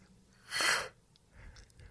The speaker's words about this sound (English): that's the sidebar mascot, me yawning.